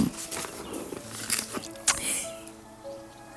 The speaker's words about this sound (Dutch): En dan moet ik even kijken, want dit stukje heb ik even opgeschreven eh, en uitgewerkt. En dat hoor je wel, je hoort het papier natuurlijk.